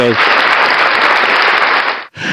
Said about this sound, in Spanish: Un aplauso.